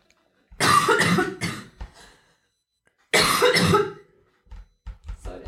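Two loud, harsh coughing fits, each a rapid burst of several hacking coughs, separated by a pause and followed by a few softer throat-clearing sounds.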